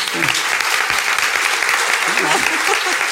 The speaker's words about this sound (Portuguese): Vamos bater palmas, né?